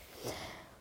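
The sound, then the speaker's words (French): A dog's snore, a single soft, breathy snort peaking briefly and trailing off into a faint airy hiss, fairly quiet, with no voices. “Désolée pour mon chien qui ronfle, il ronflait de plus en plus fort et continue, donc je pense que tu l'as entendu.”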